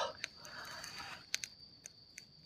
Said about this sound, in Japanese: 今音聞こえてんのかな 焚き火の音って聞こえてますかね皆さん。ちょっと、後で自分でも聞いてみますが。